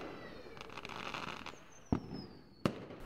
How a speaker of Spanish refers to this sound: Uno que desde pequeña me encanta es el atender la noche del 31 de diciembre los fuegos artificiales aunque tengo que reconocer que en los últimos años no he visitado muchos.